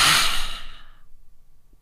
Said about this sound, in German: Und nun atme durch den Mund laut aus. Ha!